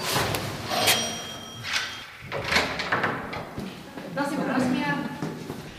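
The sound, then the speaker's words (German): A front door opens during door-to-door election canvassing, with a few sharp knocks and rattles and a brief high squeak in between, while people talk and greet each other. “Aber sie bleibt immer professionell und knipst ihr Lächeln an, sobald eine Tür aufgeht.”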